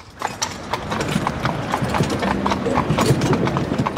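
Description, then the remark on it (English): Hooves of sturdy draft horses pulling an open fiaker carriage clip-clop steadily on pavement in Vienna's city centre, Austria, a brisk repeating rhythm of sharp knocks, with the faint rattle of the carriage and street ambience underneath. “The fiacre. Open carriages pulled by sturdy draft horses.”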